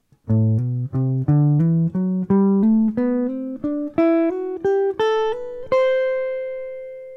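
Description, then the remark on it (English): A fingerstyle jazz guitar plays a smooth, slurred scale warmup exercise, climbing steadily upward note by note, at an even pace, ending on a high note left to ring. Played alone and clear, with no talking. “Jazz Guitar Warmup: (Almost) Slurred Scale Exercise”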